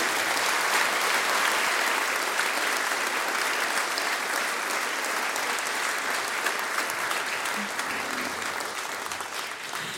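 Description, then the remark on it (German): An audience applauds as a thank-you for the full ten seconds, a dense, even wash of many hands clapping at once, loud and sustained, tapering only slightly at the end. “Also können wir einmal klatschen.”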